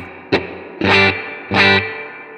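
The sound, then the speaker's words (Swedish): Distorted electric guitar played through a Benson preamp at moderate gain, with reverb set at 12 o'clock and no delay, plays three strummed chords, a short stab followed by two longer sustained hits, each with a reverb tail lingering underneath, loud with no talking. “vi kan, så här låter eh, reverbet bara nu 12.”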